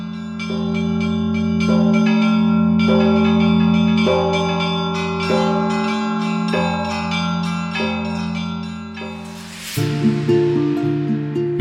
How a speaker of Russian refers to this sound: Тогда впервые после столетия тишины в селе Млёва вновь раздался праздничный колокольный звон